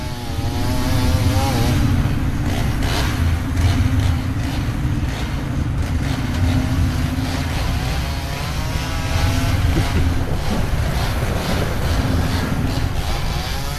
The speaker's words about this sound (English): Some kind of chainsaw races going on.